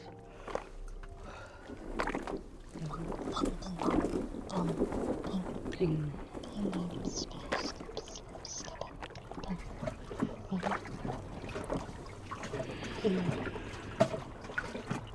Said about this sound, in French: En position de foutus, le pavillon de mon oreille est collé à la paroi. J'entends un clapotis incessant, un son qui roule et résonne dans tout le bateau tambour.